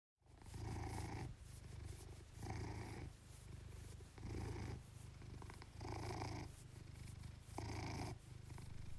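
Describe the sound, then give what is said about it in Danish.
A cat purrs steadily, a low continuous rumble that swells and eases in a regular rhythm with each breath, about five cycles, with no other sounds around it. “Nu trænger du med garanti til mere kat, der spinder, for det var, hvad det kunne blive til i Nødradioen Kjærhus Karantæne i dag.”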